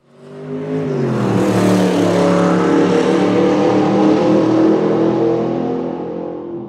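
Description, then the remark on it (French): An old Seat Ibiza car engine fades in, revs up sharply, then holds a loud, steady throaty drone for several seconds before easing off slightly, with no voices. “on a eu une, euh, une Seat Ibiza qu'on nous a donnée, c'est une vieille voiture.”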